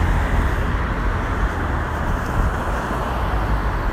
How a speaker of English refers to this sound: yeah, I'm not sure what's going on today. There's um, a lot of cars.